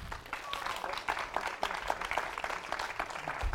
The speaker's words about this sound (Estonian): Äh, teeme väikse aplausi.